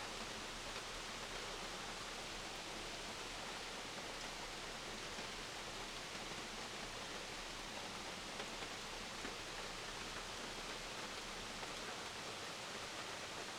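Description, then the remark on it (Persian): A waterfall's rushing water roars steadily and evenly throughout, a dense, constant hiss with no breaks, pauses or voices. “ده دقیقه مکث (فصل سوم): قسمت ۶ - آبشار”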